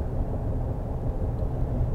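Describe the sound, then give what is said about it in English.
Steady low rumble of road noise inside a moving truck, a constant droning hum that holds at an even, moderate level throughout with no voices. “I'm driving in the truck”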